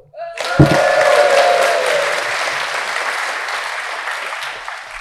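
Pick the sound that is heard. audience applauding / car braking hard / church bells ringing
audience applauding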